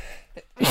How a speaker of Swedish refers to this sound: Ja! Prosit! Ja, jag är så jävla allergisk vet du. Vad är det du är allergisk mot? Dig. Mm. Nej, alltså. pollen. Gräs tror jag det är.